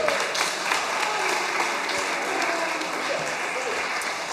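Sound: audience applause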